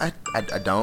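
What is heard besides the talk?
phone notification chime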